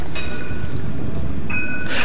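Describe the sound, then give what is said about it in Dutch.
Two bright electronic chime tones from a passing city tram in Bordeaux, France, ring out over a steady low rail rumble, the second chime arriving after a short pause. “En daar hoorde je de hele dag het getinkel van de trams die daar door de stad zoeven. Een elektronisch getinkel, dat wel.”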